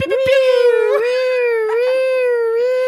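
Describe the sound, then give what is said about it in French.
A voice imitates a siren with one sustained, loud, nasal wail, its pitch dipping and rising gently and briefly catching for about three seconds, with nothing else behind it, used as a spoiler alert before discussing the film Joker. “Et ensuite, on fera une alerte spoiler très claire avec genre des bruits de sirène qui font”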